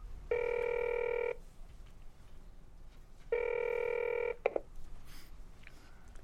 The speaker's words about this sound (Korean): 마윤수는 핸드폰을 찾아 김석기의 전화번호를 찾아 눌렀다.